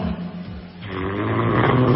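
A recording of a sleeping woman's snoring, loud, a rough rattling inhale that swells and grows harsher and stronger over two seconds, with no talking.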